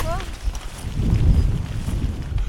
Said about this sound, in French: Le vent redouble d'intensité